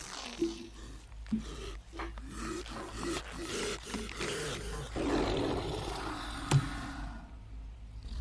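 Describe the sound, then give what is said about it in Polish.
A monstrous, werewolf-like creature lets out a deep, rasping roar with growling snarls in several loud bursts over about eight seconds, menacing, with no one talking. “to wilkołak? Prawie.”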